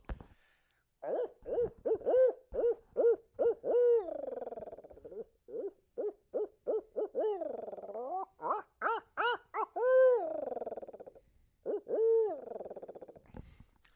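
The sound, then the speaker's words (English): A person imitates an owl by mouth, delivering a full cadence of rhythmic hoots and rising, wavering calls, loud, with brief pauses between bursts and no talking. “This is all by mouth that … is doing this. We'll do a full cadence here.”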